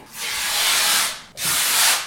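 Bed sheets are ripped twice in quick succession: a long, loud tearing rasp, a brief pause, then a second shorter rip. No voices.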